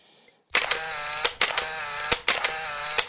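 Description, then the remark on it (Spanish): A DSLR camera's mirror flips and its shutter clicks in three quick bursts of loud mechanical clatter, each ending in a sharp snap, with no voices present. “Porque a pesar de que se cambió a lo digital, tiene esa parte mecánica que hace que el espejo suba y baje para que el obturador reciba la luz necesaria en el momento necesario y todo lo que conlleva.”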